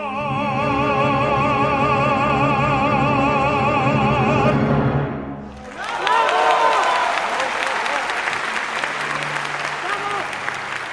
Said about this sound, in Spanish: Estamos escuchando la ovación a Plácido Domingo en su último concierto en Madrid.